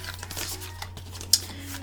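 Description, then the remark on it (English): Soft papery riffling of an affirmation card deck being shuffled, a quick irregular flutter with one sharper snap near the end, over a faint steady hum and no voices. “I want to end this actually by picking out some cards for my affirmation deck, seeing what other message I can give you. So I'm just going to shuffle them and whatever pops up at me is what I am going to read.”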